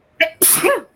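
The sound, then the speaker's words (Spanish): A single loud sneeze: a short sharp intake, then an explosive hissing burst that fades out over about half a second, with no talking. “Sorry. Salud.”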